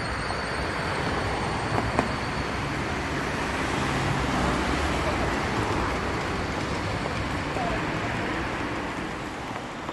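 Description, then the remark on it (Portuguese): A subway train rumbles past underground, a dense, steady roar of wheels and rushing air that holds at an even loudness throughout, with a faint murmur of voices mixed into the din. “Nas solas dos pés, sinto o metrô passar.”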